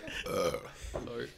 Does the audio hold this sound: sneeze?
yes